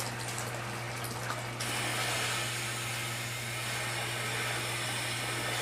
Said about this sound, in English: I'm going to have to shut this water down a little bit because the tub's getting too full.